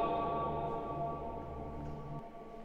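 A sustained, resonant tone hangs in a large reverberant space, ringing steadily for a couple of seconds before its echo fades into the quiet hall.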